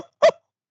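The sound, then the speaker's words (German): A single short, sharp bark call from a siamang gibbon, loud, ringing out alone against silence. “Nun sind diese extrem lauten Belllaute zwar aus der Nähe sehr laut”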